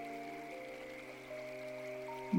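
A babbling river stream flows steadily at a soft level, its even watery hiss joined by sustained low tones throughout, with a brief low thump right at the end.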